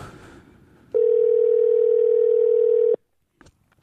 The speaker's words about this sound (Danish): Man ringer nu.